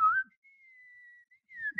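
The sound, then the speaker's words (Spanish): A person whistles a single sustained tone that wavers slightly, starting louder with a quick rising slide, fading softer in the middle, then swelling again briefly at the end, alone. “tararear, sí, sí, sí, Yo sé silbar, no?”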